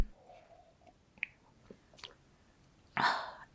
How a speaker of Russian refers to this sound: Итак, я уже вам рассказала про кофе. Теперь необходимо самой сделать глоток